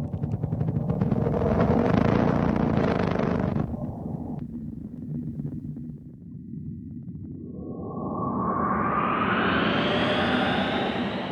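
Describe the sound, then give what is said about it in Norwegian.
An eerie synthetic NASA sonification of the planet Mercury: a loud, deep rumbling drone with a hissy upper layer that cuts off abruptly, then a whooshing tone sweeping steadily upward in pitch. No voices. “Og dette er for øvrig lyden av Merkur, ifølge NASA.”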